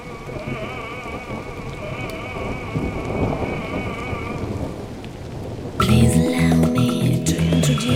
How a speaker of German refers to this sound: Der harte Sturm drückt mir auf die Lunge. Ich bekam kaum noch Luft.